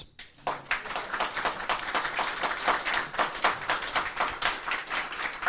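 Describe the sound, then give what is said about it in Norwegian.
A live audience applauds, many hands clapping in a dense, steady patter that starts after a brief moment of quiet and keeps an even, moderately loud level throughout, with no one speaking. “Og takk til dere som har kommet. Applaus.”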